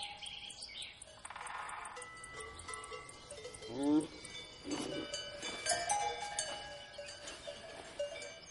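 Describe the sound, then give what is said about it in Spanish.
Cowbells clank and ring irregularly from a herd of cows grazing on a plain, their metallic tones overlapping, with faint bird chirps in an open outdoor setting. “En la llanura hay un rebaño de vacas pastando.”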